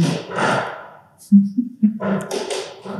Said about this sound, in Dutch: Spookt het? Is dat de wind? Nee, dat is denk ik iemand die aan de deur rammelt. Dat is niet zeker.